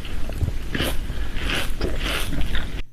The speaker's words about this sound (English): Okay, guys, this is what a bowl of one of my favorite cereals, Fruity Pebbles, sounds like.